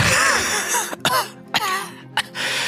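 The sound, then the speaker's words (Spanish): A voice performs a man's fit of coughing after he inhales a powdery substance thrown in his face: a strained, raspy wheeze followed by three sharp, harsh coughs spaced about half a second apart, with gravelly gasps in between. “Y vemos cómo el tipo empieza a toser.”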